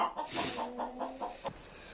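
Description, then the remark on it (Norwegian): Chickens cluck in a quick series of short, repeated bursts, moderately loud, with a steady low hum running underneath. “Men med alt dette her dingeldangel-styret Jeg syns det er veldig trivelige, triv, veldig trivelige fugler.”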